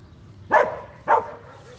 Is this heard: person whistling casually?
no